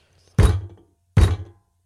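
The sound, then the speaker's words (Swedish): Two heavy, forceful knocks, so strong that the furniture shook, evenly spaced about a second apart, each a deep booming thud with a short ringing decay, followed by silence. “Det kom två knackningar, så starka att möblerna skakade.”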